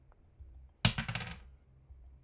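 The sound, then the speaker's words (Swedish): A sudden clatter followed by a quick run of rattling, tumbling clicks that die away within about half a second, like dice hitting a table and settling, as dice are rolled for a roll that comes up 10, with no talking. “Ja, varsågod och slå ett eh, slag.”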